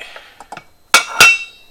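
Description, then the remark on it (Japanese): Dishes washed in the dishwasher that morning clink as they are put back into a cupboard: a few light taps, then two sharp, ringing knocks of ceramic or glass, with a short metallic ring trailing off. “これ食洗機は朝回したんだよな僕は 自分がちゃんとやったかどうかよくわかんないあできてるな綺麗になってる OK 朝食洗機かけた分を食器棚に”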